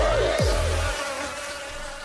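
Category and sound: insect, bee buzzing sound effect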